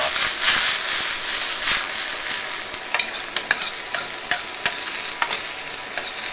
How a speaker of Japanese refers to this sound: どういい音する いい音収録できてるいやもやしもやしはさ音も匂いもいいよねもやし炒めるとか